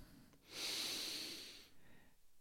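A single deep breath drawn in, a soft airy rush lasting about a second before fading into quiet room tone.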